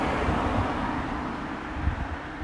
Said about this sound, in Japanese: ああ、車だー